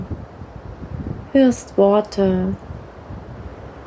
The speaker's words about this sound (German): Du hörst jetzt das Meeresrauschen im Hintergrund, was dich in dieser Meditation begleiten wird.